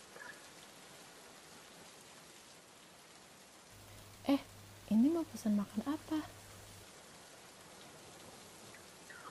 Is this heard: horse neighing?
no